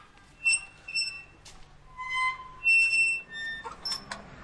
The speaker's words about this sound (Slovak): Ideme do vonkajšieho areálu, ktorý je oplotený. Otvárame bráničku.